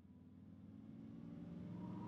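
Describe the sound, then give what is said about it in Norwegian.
A black car's engine hums steadily at low pitch, gradually growing a little louder as the car drives down into the underground parking beneath the president's office in Cape Town, with no voices present. “En dag kjører en svart bil ned til den underjordiske parkeringen under presidentens kontor i Cape Town.”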